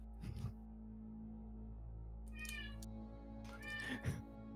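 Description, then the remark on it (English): A cat meows a few times in short, drawn-out calls, clear, with a low steady hum running underneath. “it's good to know the cat agrees.”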